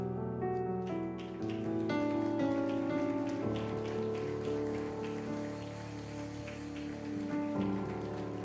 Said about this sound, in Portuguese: Comamos todos e aplaudamos o nosso Deus.